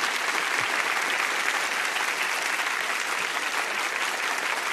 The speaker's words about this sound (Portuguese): Pode aplaudir.